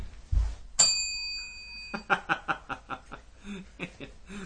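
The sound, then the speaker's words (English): A single bright bell ring strikes sharply and lingers with a clear sustained tone for about a second, then gives way to bursts of people chuckling and laughing. “The, just the one ring was necessary.”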